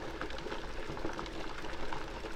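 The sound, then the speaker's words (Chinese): Water boiling in a large pot, a steady dense bubbling with quick little pops and gurgles scattered throughout, moderately loud and continuous, with no voices. “大锅子里不断的在冒出一颗颗的水泡，咕噜咕噜，咕噜咕噜，它们嘣嘣嘣的围绕在你的手边。”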